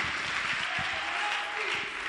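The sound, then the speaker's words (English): A steady wash of applause from a crowd, dense and continuous clapping with no pauses, fairly loud throughout. “Hey, clap for the sheep. Clap for the sheep.”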